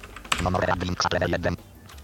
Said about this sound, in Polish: Klikam na przycisk set w razie czego strzałką. Znaczy enterem, ale y, y, wybieram strzałką.